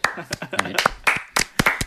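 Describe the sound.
Hands clap in sharp, irregular bursts, a short scattered round of applause from a few people, with voices talking and cheering underneath.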